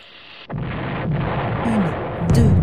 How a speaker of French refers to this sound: Trois, plusieurs explosions endommagent l'usine. La plus violente d'entre elles tue cinq personnes,